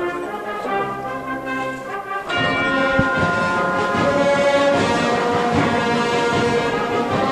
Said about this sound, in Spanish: Sí, a la las campanas de Virgen de los Reyes que suenan.